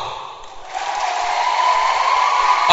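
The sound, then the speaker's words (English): A crowd of diners at a meal claps steadily, a dense wash of many hands that starts modestly and swells louder within the first second, then holds at a strong, even level with no talking over it. “Can you tell by your hand clap?”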